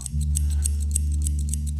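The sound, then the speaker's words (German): Scissors snip quickly and steadily, about six crisp cuts in a regular rhythm, over a constant low hum. “Aus einem Blatt Papier, wie wir es vorhin schon gehört haben, kann ganz schnell durch wenige Bastelhandgriffe und wenige Scherenschnitte eine tolle Dekoration entstehen.”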